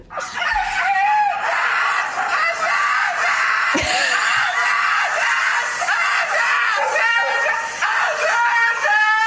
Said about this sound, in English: there's a husky that's staying there for the day. So the caption reads, you know, this something like when you have a husky that's in for grooming, and here is what it sounds like.